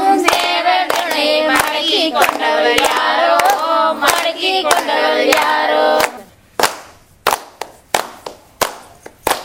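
A Kongu Nadu kummi folk song sung by a group from the Thiruvengadampalayam Puthur area of Perundurai over steady, rhythmic hand claps; after about six seconds the singing stops and a few scattered claps ring out alone before fading.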